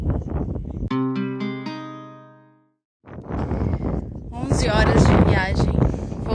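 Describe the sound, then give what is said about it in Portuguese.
Steady, rushing wind noise buffets the microphone in a desert with mountains all around, briefly giving way to near silence before gusting back strongly, with a voice talking over the roar. “voltou o vento.”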